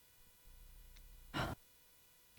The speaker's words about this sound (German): Ich nehme mal hier einen kleinen Schluck Wasser. Das mache ich sonst nie während den Podcast-Folgen trinken.